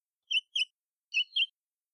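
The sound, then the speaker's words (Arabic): A small bird chirps four times in two quick pairs, bright high-pitched notes with a short pause between pairs, clear against silence. “عصفور صغير ولطيف”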